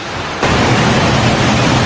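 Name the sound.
rushing river water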